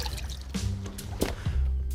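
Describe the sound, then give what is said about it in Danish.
A hand sloshes and dips into the water of Esrum Sø lake in North Zealand, Denmark, feeling for zebra mussels, with soft splashes and trickling drips over a low, steady background rumble; no voices. “Og jeg tager lige min hånd ned, fordi så kan jeg ofte mærke, om der sidder muslinger.”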